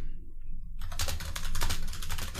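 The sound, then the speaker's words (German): Rapid keyboard typing of a reply to a message starts after a brief quiet moment, a dense run of light clicky keystrokes in quick, uneven rhythm, steady over a low background hum. “Jetzt, jetzt seht ihr, jetzt ist sie schon wieder am Tippen.”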